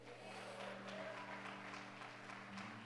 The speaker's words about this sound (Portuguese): Dê um brado de vitória, aplauda o Senhor aqui.